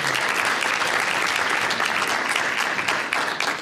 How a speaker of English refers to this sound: So um, that's brought us to the end of our agenda today, so I would now like to officially thank Kylie and Tamara, who put the meeting together for us, and I do know how much work goes into that, so if we could put our hands together for Kylie.